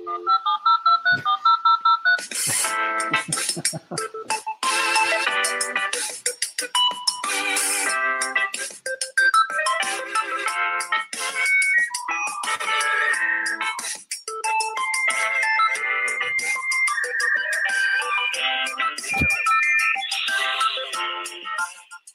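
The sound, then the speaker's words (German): A bright, tinny electronic intro jingle plays from a phone speaker, a busy melody of synth tones running steadily for about twenty seconds at even loudness, with no talking over it, then the phone fades it out automatically. “Boah, ausgefadet. Wie cool ist das denn? Mach das Handy automatisch.”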